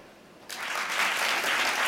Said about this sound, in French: Euh, applaudissez les podcasteurs et podcasteuses qui sont nommés ce soir. Ok. Applaudissez les podcasteurs et podcasteuses tout court.